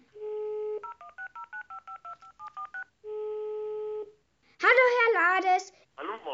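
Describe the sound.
A steady dial tone gives way to a quick run of about a dozen two-note keypad beeps as a telephone number is dialed to call someone for an interview, then a long ring tone, after which a voice begins speaking.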